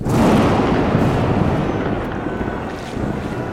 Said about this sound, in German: Doch der Sturm zog sich zusammen, und ehe eine Stunde verging, krachte das Schiff gegen einen Felsen und blieb sitzen.